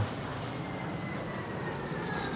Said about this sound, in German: Er ist gerade dabei, seinen Fang zu sortieren, als er über sich ein schwaches Summen hört. Es ist ein ungewöhnliches Geräusch, aber eines, das er in letzter Zeit immer öfter hört. Das Geräusch eines dieser neumodischen Düsenflugzeuge.